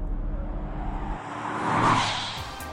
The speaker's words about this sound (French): La voiture repartit sur la route.